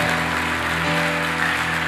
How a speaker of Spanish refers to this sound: Amén y amén. Démosle fuerte ese aplauso al Señor.